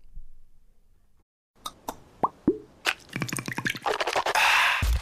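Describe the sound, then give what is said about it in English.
A Listerine mouthwash bottle cap clicks open, then a few wet plops and a gurgling pour of mouthwash that builds into a steady, frothy splashing, with no voices. “You know what that is? That's the sound of wow with Listerine.”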